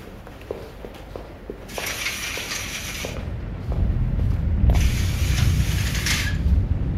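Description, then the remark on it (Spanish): Curtains are pulled shut in a home in two long, rasping sweeps, rings scraping along a rail, after a few soft footsteps and light clicks. Fairly loud, with no talking. “Voy a cerrar esas cortinas.”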